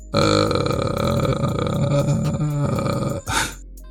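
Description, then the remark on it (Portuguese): A person growls out a long, loud, rasping groan, imitating a mummy, the drawn-out guttural voice holding steady for several seconds before breaking off near the end. “Ah, ah, tô fazendo barulho da, da múmia.”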